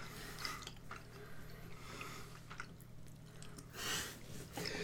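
chewing food

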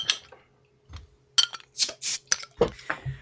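beer bottle being opened

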